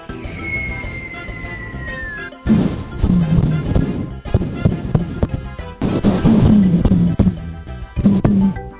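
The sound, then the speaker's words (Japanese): A falling whistle, made by blowing on a 5-yen or 50-yen coin or by whistling, then loud bursts of rapid popping and crackling from lips flicked with a finger in front of the microphone, a homemade sound effect imitating a fireworks display, with no talking. “ね、結構花火に聞こえるでしょただこれ、マイクの前で唇を指で弾いてるだけなのよ。”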